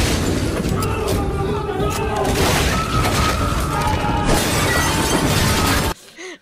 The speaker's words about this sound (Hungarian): Meg kéne játszani, tudod, amikor fog az FBI és betörik az ajtót. Igen. FBI, open up!